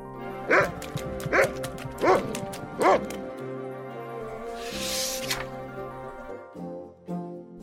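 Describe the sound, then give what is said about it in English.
A dog, Floppy, barks four times in quick, evenly spaced succession, loud, while being chased by a bigger dog, followed by a softer rushing noise and a couple of faint yips near the end. “Floppy was being chased by a bigger dog.”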